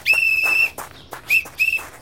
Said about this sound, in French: il croisa un homme avec un képi sur la tête, engoncé dans un uniforme bleu qui, quand il le vit, hurla avant de détaler à toutes jambes en soufflant dans un sifflet strident.